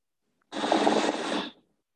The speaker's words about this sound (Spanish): Espero que se alcance a escuchar ahí el romper de las olas.